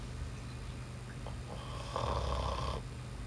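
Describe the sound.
A person mimics someone snoring in their sleep with one drawn-out, rasping inhale that rattles for about a second, preceded by faint breathy noises over a low background hum.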